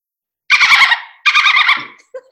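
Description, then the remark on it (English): A person imitates a dolphin with their own voice, making two loud bursts of rapid clicking blended with high, squealing squeaks, followed by a couple of brief, softer chirps. “Guys, that was actually me. Like that wasn't something I pre-recorded on YouTube. That was my dolphin noise.”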